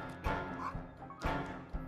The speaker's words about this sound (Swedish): Du hör hundskallen.